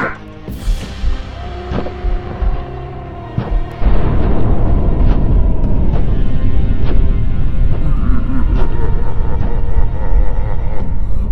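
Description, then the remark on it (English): A cannon fires with a sudden loud blast, followed by a long, heavy rumbling roar scattered with sharp cracks. Before the shot, quieter mixed sounds play. “Fire cannon, fire!”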